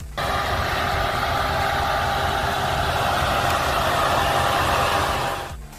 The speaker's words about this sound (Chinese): 所以电动车快充的时候散热有多努力，我们可以听一下特斯拉 Model 3快充时的声音。